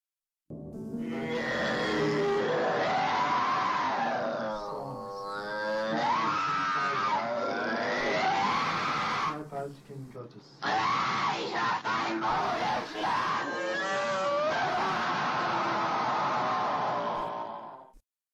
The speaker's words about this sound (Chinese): 驱魔的录音中，有时候他什么也不说，只发出野兽一般的吼叫，比如下面这段。